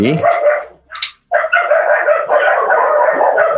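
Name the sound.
dog barking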